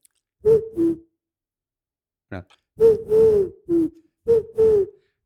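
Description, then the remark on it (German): A person imitates an owl with a series of breathy, tonal hoots in short bursts, first a pair, then a longer run of four or five, with a brief spoken word in between. “Das andere ist die Eule.”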